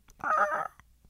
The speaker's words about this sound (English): Oh yeah, you heard uh little Perry the pigeon. He's got it.